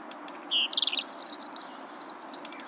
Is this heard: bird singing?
yes